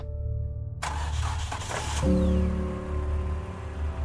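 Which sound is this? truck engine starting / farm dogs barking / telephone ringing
truck engine starting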